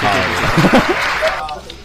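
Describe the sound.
A short burst of applause, dense and steady clapping for about a second before fading out, with voices talking over it.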